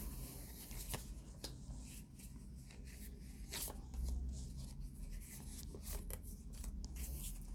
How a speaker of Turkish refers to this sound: Çekelim son kartlarını.